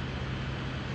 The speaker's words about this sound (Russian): Дайте мне обратную связь, говорят, что, может быть, это звук динамика. Не динамика, а вентилятора компьютера.